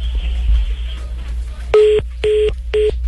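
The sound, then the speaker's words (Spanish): After a second and a half of quiet line hiss, a coin-paid phone call, cut off when its coin ran out, sounds three evenly spaced electronic beeps, loud, like a disconnect tone on the line. “Ah, se acabó la monedita, ah.”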